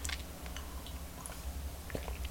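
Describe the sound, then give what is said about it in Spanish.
A quiet sip of coffee, with soft slurping and mouth noises, a couple of faint clicks and a swallow over low background hum. No one speaks. “Así que me voy a dar este sorbito rápido, pero amargo y siempre, siempre necesario.”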